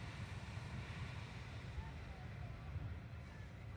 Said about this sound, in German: Ich hoffe, man kann das so ein bisschen hören. Ansonsten, jeder kennt das Meer. Schließt einfach die Augen und stellt euch Meeresrauschen vor. Die Sonne im Gesicht, die wunderbare Meerluft.